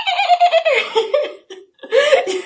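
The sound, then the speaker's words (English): A voice imitates a guitar pick scraping along strings with squeaky, sliding, laugh-like sounds in two close, fairly loud bursts separated by a brief pause. “And there's like something I do with uh, my pick where I kind of scrape it along the strings and it goes like.”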